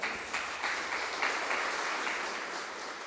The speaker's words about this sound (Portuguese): Vamos aplaudir Jesus, amém?